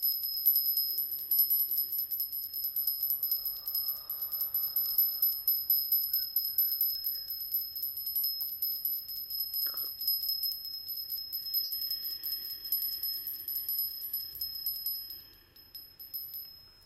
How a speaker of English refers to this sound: Follow the sound of this bell coming fully back into your body.